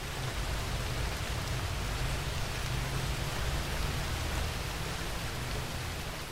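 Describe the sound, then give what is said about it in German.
Steady, dense rain hisses and patters continuously on leaves and the forest floor, a broad even wash of sound with a low rumble underneath and no voices. “Dann beginnt er wie ein tausendjähriger Regen und tausend Regentropfen prasseln auf Blätter und den Waldboden.”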